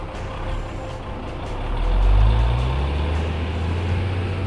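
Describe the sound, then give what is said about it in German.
A loud motor engine of a motorized cider cart is started and throttled: it rumbles low and heavy, then revs up to a roaring peak midway before settling into a steady, throaty idle. No voices are heard. “Und so hatte ich auch keine Probleme, den Motor zu starten und Gas zu geben.”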